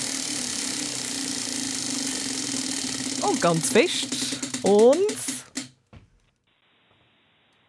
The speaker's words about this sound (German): Wir trüllen an unserem Preisrat. In welche Richtung soll ich? Mhm. Links und ganz fest. Also, ich gebe mein Bestes. Links.